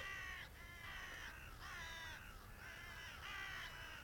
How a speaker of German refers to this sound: Ich glaube, die Raben hören uns doch.